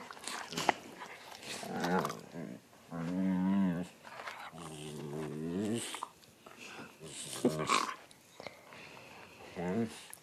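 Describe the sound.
A dog whines and makes drawn-out, growly vocal sounds to get someone's attention, several bursts in a row, with people talking and laughing around it.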